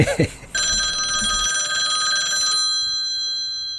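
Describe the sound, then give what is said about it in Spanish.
A telephone rings on an outgoing call: one steady, bright electronic ring lasting about two seconds, fairly loud, following a brief burst of voice, then trailing off into quiet line noise. “Vamos a llamar”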